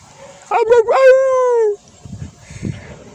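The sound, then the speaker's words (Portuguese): A dog, nearly lunging at a passing man, lets out two quick barks that run into a long, drawn-out yelp sliding down in pitch, almost howl-like, then low muffled rumbling noise follows. “Dá pra ouvir, será? Cachorro latindo, que nem um. Que nem um lobo, é isso.”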